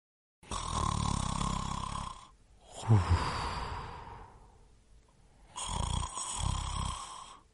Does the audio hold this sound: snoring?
yes